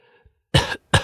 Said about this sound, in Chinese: 忽然门外走进来一位布衣老者。老者拿着一副扁担，一边走一边不停的咳嗽。